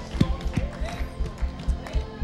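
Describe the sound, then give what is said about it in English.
An audience at Hill City Church claps in unison during worship with a steady, fairly quick beat, each clap a sharp thump, while voices carry on faintly underneath. “Some of you might be saying, why are we clapping at church like that?”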